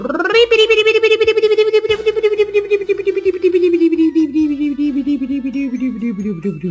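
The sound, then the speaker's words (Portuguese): A roulette wheel, spun to pick the day's category on a show, spins with a steady stream of rapid ticks over a whirring tone that slowly drops in pitch as it winds down, fairly loud and with no talking. “categoria do programa de hoje, rodando a roleta.”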